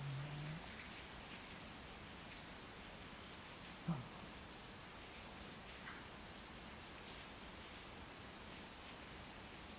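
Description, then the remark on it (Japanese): Steady rain falls outside, a dense, even hiss filling the whole clip with a soft patter of drops and one brief louder tap partway through; no one speaks. “外では今雨が降っています”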